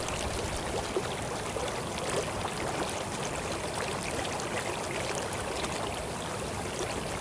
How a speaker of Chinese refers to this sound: 你听，这个水声，是不是很清凉？